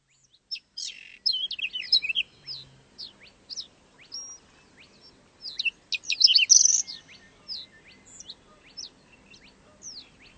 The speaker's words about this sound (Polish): Haben Sie es gehört? Seltene Vögel kann man hier hören. Hier im Naturparadies.